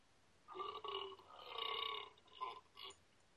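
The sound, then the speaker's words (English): A long, drawn-out belch rumbles for over a second, followed by two shorter burps, loud with no talking. “It was yeah, a very similar right. sa- belching sound.”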